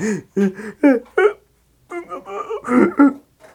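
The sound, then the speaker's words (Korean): A voice acts out a sneeze building up, with a string of short, rising, breathy vocal bursts separated by gasping pauses, fairly loud, as a storyteller voices the wolf sneezing again at the third little pig's house. “그리고 다시 한번 재채기를 했어.”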